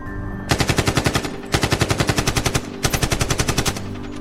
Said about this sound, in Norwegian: Mennene som skyter, bruker AK-47, eller såkalt kalasjnikov. Det er et våpen som gjør mye skade.